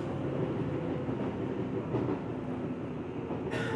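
A train rolls steadily along the rails, arriving at Ashikaga in Tochigi Prefecture, Japan, a dense low rumble with faint rhythmic clatter, and a brief hiss of higher noise rising near the end. No one speaks.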